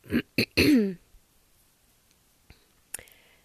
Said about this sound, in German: ähm, warum ich mich jetzt so räusper, hängt eigentlich nur daran, weil ich gerade erst gegessen habe.